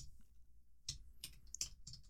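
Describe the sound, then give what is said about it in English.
Quiet computer keyboard typing, a few sharp clicks and key taps at an uneven pace, with no talking. “everybody who's listening to the show, I'm typing this.”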